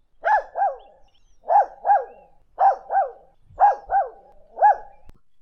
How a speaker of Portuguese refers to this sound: Nesse exato momento, Naná se soltou de sua coleira no primeiro andar da casa e subiu correndo e latindo até o quarto das crianças.